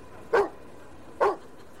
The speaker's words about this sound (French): Le chien, d'ordinaire si gentil, devient agressif et grogne sur l'homme.